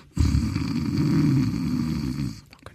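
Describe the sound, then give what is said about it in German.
A person imitates their pet cat purring with a steady, low, rattling rumble in the throat, sustained for a little over two seconds before stopping abruptly. No words are spoken. “Nee, die Katze, die, die schnurrt manchmal, wenn die morgens, wenn der Wecker um 4 Uhr klingelt oder um 10 vor 4 ja schon, dann kommt sie angekuschelt und dann”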